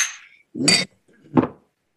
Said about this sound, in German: Darauf würde ich sagen, müssen wir nochmal anstoßen.